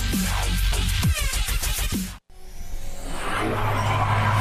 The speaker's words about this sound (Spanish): Los motores se revolucionan. Es señal de que estamos de vuelta en Factor Autos